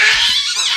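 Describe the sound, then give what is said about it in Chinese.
A Tyrannosaurus rex roar: one short, loud, harsh burst, raspy and screechy rather than deep, holding steady for under a second with no talking over it. “啊，这是一只暴龙的声音。”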